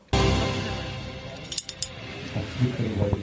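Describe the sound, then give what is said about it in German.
Two bright, ringing clinks of glasses touching in a toast, one right after the other, over a steady low background rumble and some faint handling noise. “Es ploppt nicht mehr, weil ich habe schon getrunken. Ja, Prost.”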